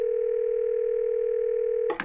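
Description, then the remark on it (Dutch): A steady, unbroken telephone dial tone hums at a single mid-low pitch for about two seconds, then a brief burst of noisy clicks cuts in at the end, as a call is placed to crisis manager Alex de Vries. “Eh, daarover gaan we even Alex de Vries bellen.”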